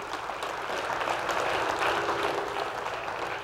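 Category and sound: crowd, audience clapping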